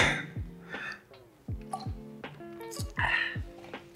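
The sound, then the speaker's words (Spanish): Someone drinks water, with a series of wet gulps and swallows every half second or so and soft mouth noises in between. No talking. “Bueno, mientras checas, a tomar aquí mi agua”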